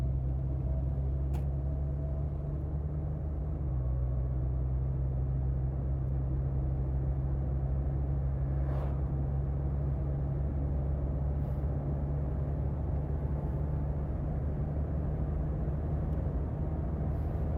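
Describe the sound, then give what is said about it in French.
A car engine drones steadily from inside the vehicle as the driver brakes and then re-accelerates, a low rumbling hum with a slight shift in pitch early on, continuing evenly with faint road noise and no talking. “Écoutez-moi ce beau son de voiture.”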